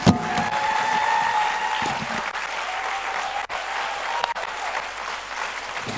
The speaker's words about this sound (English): Clap your hands like you hear what I'm saying.